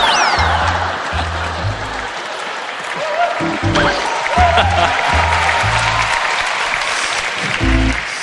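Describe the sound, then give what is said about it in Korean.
A crowd claps steadily throughout, a dense wash of applause mixed with bursts of audience laughter and a few voices calling out over it. “박수 소리와 함께 웃음 소리가 이렇게 많이 난다는 것은 어, 대부분이 어, 굉장히 속이 시원하다는 거예요.”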